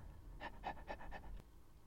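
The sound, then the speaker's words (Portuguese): A dog pants while playing fetch with a ball, in a quick, even rhythm, four soft breathy huffs in a row, followed by a brief quiet tail with no talking. “São aqueles cães que nunca se cansam.”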